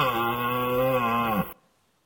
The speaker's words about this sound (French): Nous allons voir un exemple amusant qu'est le brame du cerf.